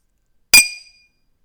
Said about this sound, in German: Das ist ja mies angehört. Ja, hier meine Wasserkaraffe, ey. Null, null Resonanz. Ja. Hier mein dickes Ikea-Glas. Mach nochmal. Oh, das war oh, besser.